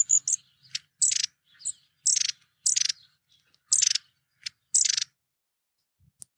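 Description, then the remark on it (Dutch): Repeated high, thin buzzy contact calls from long-tailed tits, about eight short bursts at irregular intervals with faint softer notes between, clear with no talking. “Nee, ze zingen niet, hè? ze roepen eh, constant. En dat is het geluid wat ze maken.”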